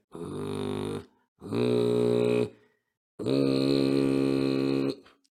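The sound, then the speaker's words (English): Three loud bursts of a deep, raspy kargyraa throat-singing growl, each held for one to two seconds with short silent gaps between, the last one the longest. “you have to to try to to make that sound longer so once you are very comfortable with this rumbling, like a growling uh, sound.”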